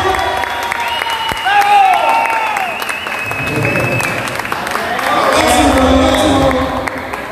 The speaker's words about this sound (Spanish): El aplauso que fuerte. ¡Bravo!